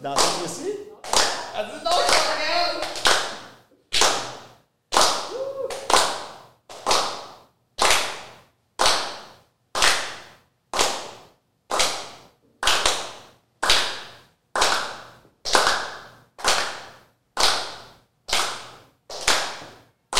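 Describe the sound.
The audience at the Black Box claps along for a little dance at the end of the show, sharp bright bursts landing roughly every second, looser and denser at first with some voices mixed in, then settling into an even beat.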